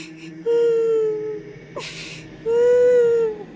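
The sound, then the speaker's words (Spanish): A voice imitates a child's whimpering cry: two drawn-out, high, wavering whines separated by a sharp breathy intake, fairly loud with no other talking. “Pero un llanto así de”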